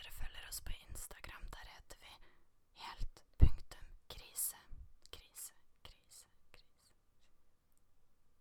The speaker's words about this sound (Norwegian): Jeg måtte ta med litt ASMR. Man må jo liksom putte inn ting som er poppis, da, sånn at folk gidder å høre på. Nå, de som liker ASMR, fikk høre litt. En god dose.